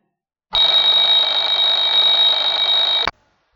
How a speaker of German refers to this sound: Um 6 Uhr klingelt der Wecker.